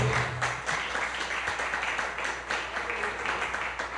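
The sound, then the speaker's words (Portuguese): An audience at a church service applauds the Lord, a dense, even wash of many hands clapping at once that holds at a fairly loud level for the full few seconds without fading. “Aplauda ao Senhor.”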